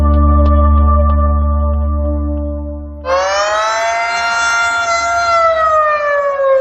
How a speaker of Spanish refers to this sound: Ojalá esto fueran los bomberos yendo a rescatar a alguien encerrado en un ascensor. Por desgracia, son las sirenas que en Ucrania avisan de los bombardeos que han causado el desplazamiento de millones de personas, la mayoría mujeres y niños.